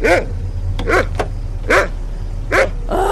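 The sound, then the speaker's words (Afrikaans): A dog barks in a steady rhythm, about five sharp barks, by a car in the dark, over the low, constant rumble of the car's idling engine. “Kom, klim terug in die kar. Net nou trap die kar jou.”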